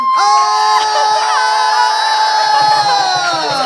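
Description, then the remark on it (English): An audience screams and cheers together at full volume, a sustained wall of high-pitched shrieks and whoops that holds steady for several seconds, loud, with no talking. “Remember check. before when I said we're all gonna go back to screaming? We're gonna do that right now.”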